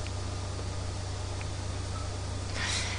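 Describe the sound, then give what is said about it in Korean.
A continuous, steady buzzing drone of cicadas in large trees behind a house next to an elementary school, on a hot summer day, swelling a little louder near the end, with no voices present. “초등학교가 있다 보니까, 네, 그 나무들에서 매미가 여름마다 저렇게 웁니다.”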